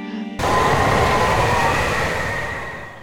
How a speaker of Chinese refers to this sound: 可是来了一阵大风